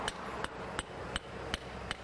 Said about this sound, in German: Mit einem Hammer überprüft Dominik die Betondeckung. Ein heller Ton verrät, an welchen Stellen der Bewährungsstahl zu nah an der Außenkante liegt und saniert werden muss.